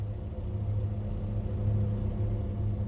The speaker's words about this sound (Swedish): Utanför hörs ljudet från en lastbil på tomgång.